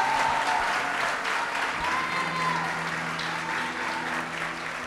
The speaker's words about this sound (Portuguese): Se é para aplaudir, vamos aplaudir. Aleluia!